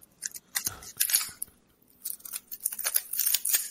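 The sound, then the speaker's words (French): Rapid plastic clicking and clacking in two bursts as a puzzle cube is twisted and scrambled, with bright crisp snaps and a short pause between the flurries. “Ah, vous êtes en train de le mêler, on l'entend.”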